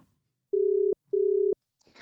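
An outgoing phone call's ringing tone on a call to Australia: two steady, mid-pitched electronic tones, each about half a second long, separated by a short pause, then a soft rustle of noise as the line picks up.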